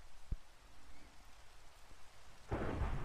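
Rain with thunder: a low, continuous rumble with a sharp thump early on, then a loud roaring surge of storm noise and rain building near the end. No voices.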